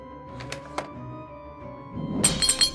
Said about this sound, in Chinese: 他终于打开了酒柜，他开始砸酒瓶了。